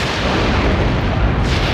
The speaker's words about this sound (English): you hear another crack of lightning